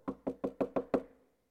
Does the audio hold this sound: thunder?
no